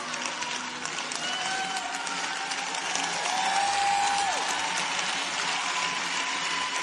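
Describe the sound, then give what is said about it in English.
A crowd applauds steadily for about seven seconds, a dense wash of clapping that swells slightly midway, with a couple of thin whistling tones rising above it. “And for that, he gets applause.”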